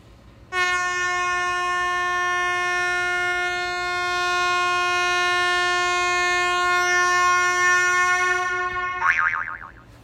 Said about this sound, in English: Give me a honk to that.